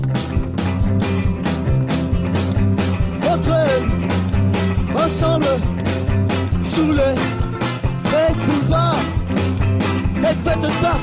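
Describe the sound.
A loud, continuous rock song from 2009 mixing rockabilly, surf, pop and punk, with a steady driving drumbeat, dense band instrumentation and a singing voice carrying the lyrics up front.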